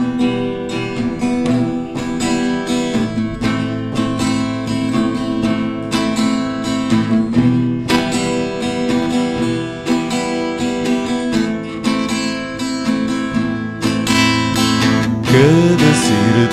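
A full-band song plays loud and continuous, with dense sustained chords, a steady rhythm and bright upper layers throughout, with no talk over it.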